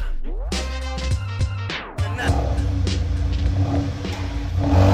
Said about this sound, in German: Das ist ein Auto, ein Audi TT8S Quattro und er gehört Kathi.